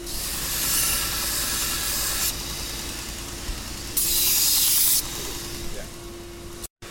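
A running bench grinder hums steadily while a knife blade is pressed against the wheel to sharpen it, in two bursts of harsh, hissing grinding, one long and one shorter, with no voices.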